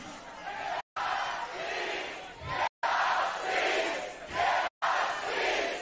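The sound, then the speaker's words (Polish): A huge crowd at the Pol and Rock festival, organized by the Great Orchestra of Christmas Charity, chants a call-and-response slogan: the left side shouts "jebać" and the right side answers "PiS". Massed voices roar in loud bursts of about two seconds, separated by brief silent breaks. “strona, lewa strona mówi jebać, a prawa odpowiada PiS.”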